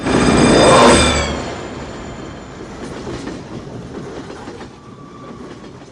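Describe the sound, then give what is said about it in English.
A train clatters along the rails with a steady rumbling roar, loudest at the start where a brief high metallic whine rings over it, then settling into continuous clickety clatter. No voices. “The train, it's your station.”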